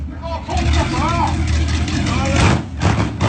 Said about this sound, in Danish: en video, hvor Peter sidder på en motorcykel og laver et hæftigt hjulspind